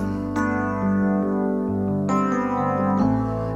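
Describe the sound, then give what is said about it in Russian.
A song about conditionally habitable housing plays loudly and steadily, with sustained, effect-heavy electric chords changing every second or so and no singing in this stretch. “Итак, песня про УГЖ условно годное жилье.”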